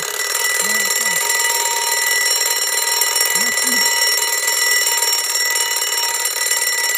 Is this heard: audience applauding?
no